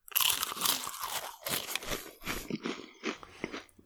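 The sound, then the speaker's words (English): Loud crunching as someone bites into and chews a crisp cracker, a series of bright crackly bursts over about four seconds with no talking. “I don't I don't like soggy crackers. I need they need to crunch like this.”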